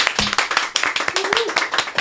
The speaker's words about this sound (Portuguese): Quem gostou, uma salva de palmas.